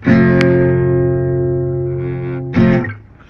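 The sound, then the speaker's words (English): A full, deep barre chord is strummed on a guitar and left to ring for a couple of seconds, then strummed once more before fading out. No one speaks. “um, if I want to play bar, it's going to sound deeper.”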